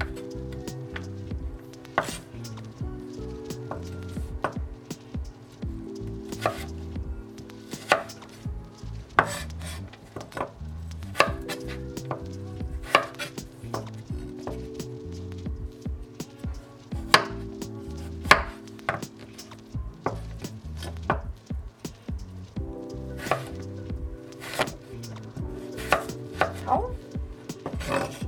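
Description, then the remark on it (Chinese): A knife chops celery on a cutting board, cutting 5 cm lengths finely into strips about 0.1–0.2 by 5 cm, in crisp, steady knocks, sometimes in quick bursts, over soft background music with sustained, stepping tones. No one speaks. “好，那我们就是再把这个长方片呢切五公分，然后每一段呢再切切细，所以会是一个零点一到零点二乘以五公分的长方段。”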